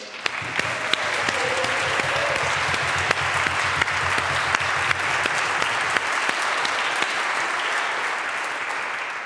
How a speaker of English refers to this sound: We didn't actually congratulate you. In the church where I served, after a baptism, people applauded because we were so happy for you.